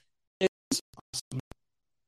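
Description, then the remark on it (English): A short cha-ching sale notification sound, heard alone as a quick run of bright, clattering bursts ending in a sharp final ring, with no voices. “the sound of making money and the sound of small businesses succeeding.”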